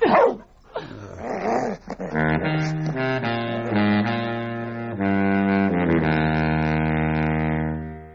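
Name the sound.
dog barking and growling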